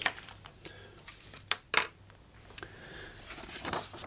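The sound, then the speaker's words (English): Handling of a paper booklet and pencil as they are handed back: a few sharp light clicks and taps, then soft papery rustling toward the end, with no talking. “Can I take the booklet and the pen yeah. and paper, pencil back, please.”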